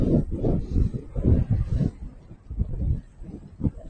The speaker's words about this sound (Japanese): あの、一応ピンマイクに、スポンジ、ウィンドガードつけてますけど、どうでしょうか風の音入ってますでしょうかあの、僕はちょっと今聞けないからわかんないんですけど、僕の耳はね、今ね、すごい風の音でビュービューって言ってるだけ。全然周りの音が聞こえない。風の音ばっか。